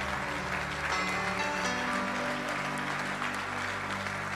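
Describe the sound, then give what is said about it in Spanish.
An audience claps together for the Lord in a steady, sustained burst of applause, dense and even throughout, with a low sustained musical tone humming underneath. “Si lo crees, dale fuerte ese aplauso al Señor.”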